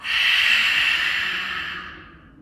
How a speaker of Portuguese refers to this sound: Palmas das mãos voltadas para cima, inspira, leva os cotovelos, transforma, inspira, transforma, inspira, puxa o ar, expira na transformação.